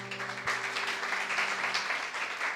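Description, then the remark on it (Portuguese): An audience applauds the Lord together on behalf of the people outside, a dense, sustained wash of clapping at steady volume for a few seconds, with a faint tonal hum underneath. “Dá um aplauso ao Senhor por causa deles lá, gente.”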